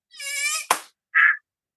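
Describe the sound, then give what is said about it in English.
A voice mimics a mosquito's thin, nasal whine, cut off abruptly by one sharp slap as a person hits themselves trying to catch a mosquito that landed on them, then a brief breathy hiss a moment later. “because you hit yourself trying to catch the mosquito that landed on you.”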